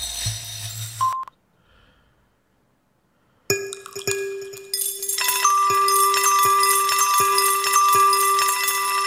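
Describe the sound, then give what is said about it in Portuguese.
A synthesizer plugin plays a randomly drawn chord progression with bright, bell-like tones: a brief note, a pause, then layered chords entering one after another and ringing out in a full, sustained wash. No one speaks. “Ele sorteia a progressão de acorde.”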